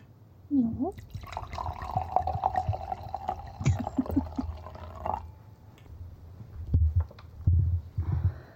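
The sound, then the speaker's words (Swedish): Wine is poured steadily into a glass for about four seconds, a gurgling stream that ends abruptly, followed by a few soft knocks and thumps. “Vänta lite, innan vi tar det här så måste jag, måste jag eh, hälla upp lite mer vin.”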